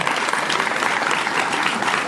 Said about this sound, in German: Also das, das Applaus bitte, danke.